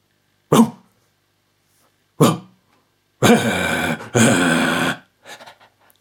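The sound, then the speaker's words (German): A person imitates a dog: two short, sharp barks spaced apart, then two longer, drawn-out voiced barking sounds back to back, followed by a few faint breathy bits. No talking. “Katzen kann man übrigens ganz gut auf allen Vieren spielen. Genauso wie Hunde.”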